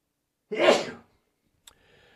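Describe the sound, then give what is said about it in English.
A single small, sharp sneeze bursts out, lasting about half a second, followed by a brief click and quiet background hum. “Um, excuse me one sec. I had a tiny sneeze.”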